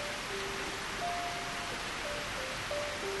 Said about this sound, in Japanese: 外の雨はますます激しさを増していた